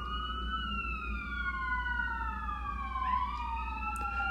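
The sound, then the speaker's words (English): A wailing emergency vehicle siren sweeps slowly up and down in pitch, heard outside a window over a steady low rumble of traffic, with no one speaking. “Cause here come the sirens, and it's just every night, damn near on the hour, that I hear this outside my window.”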